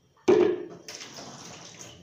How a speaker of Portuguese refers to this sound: Aí, estou esvaziando o de café que tinha.